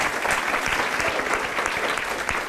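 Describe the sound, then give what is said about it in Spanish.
A crowd applauds steadily and loudly for the King of Kings, a dense wash of many hands clapping at once with no pause throughout. “Muchas ese fuerte aplauso al Rey de Reyes. Déselo fuerte, déselo fuerte.”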